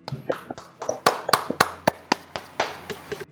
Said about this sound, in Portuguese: Fechou de forma fenomenal. Vamos aplaudir, vamos aplaudir.